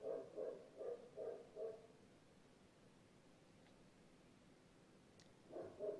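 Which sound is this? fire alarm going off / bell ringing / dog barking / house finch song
dog barking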